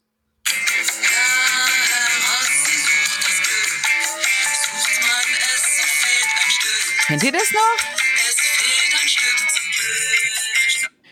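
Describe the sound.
A bright, busy 1970s cartoon theme tune plays loudly and continuously for about ten seconds, dense with melody, with a short spoken voice briefly heard over it.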